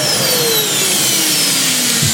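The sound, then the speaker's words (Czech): A vacuum cleaner roars loudly and steadily for about two seconds, its motor whine slowly dropping in pitch as though winding down. No voices are heard. “Vysavač Bikers Rádia Doupě.”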